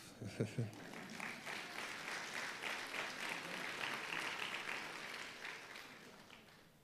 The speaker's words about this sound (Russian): Вы обещали мне помогать. Спасибо за пару аплодисментов.